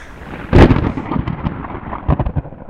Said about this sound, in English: On August 30th of 1800, there were terrible storms around the Richmond area. It washed out some roads, it made crossing various creeks and other waterways impossible.